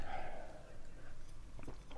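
Sips and swallowing from two people drinking at once, soft wet mouth sounds over a couple of seconds, ending in a brief sharp clack, with no talking.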